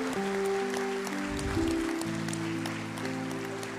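crowd, audience applause

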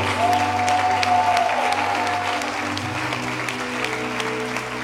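crowd, audience applause

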